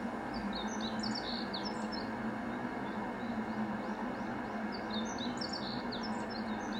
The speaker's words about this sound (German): Genau, was man jetzt halt im Hintergrund hört, sind Vögel, Landschaft und halt den rollenden Zug. Eins der gerade sehr langsam wird hier.